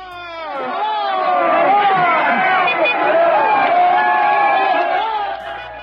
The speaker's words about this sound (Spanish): una caravana de vehículos blindados que transportaba a miembros armados del cártel de Sinaloa se abrió paso sobre la carretera federal de Comitán frontera Comalapa. Ahí los habitantes salieron a celebrarlos con gritos, porras y coros.